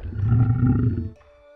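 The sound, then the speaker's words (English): A deep, rumbling tiger roar sounds loud for about a second, then cuts off abruptly, leaving a faint, lingering tonal hum. “Who else is going to rescue you from this tiger?”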